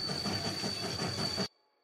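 A train rumbles steadily along the rails with a rhythmic low clatter of wheels and a thin, constant high whine, then the sound cuts off abruptly. No one speaks.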